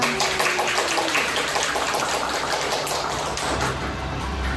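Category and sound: crowd, applause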